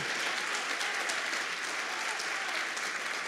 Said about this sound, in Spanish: Dale un aplauso a Dios porque eso es poderoso.